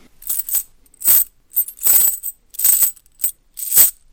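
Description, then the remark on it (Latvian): A metal chain drops into a heap again and again, each fall a bright, rattling clink, about six loud bursts in a loose rhythm with short silences between, no voices. “Nu, piemēram, pagrabā ūdens pilvēl un viens būs, teiksim, pieķēdāts pie sienas smags noziedznieks. Tagad mēs to sametam kaudzē.”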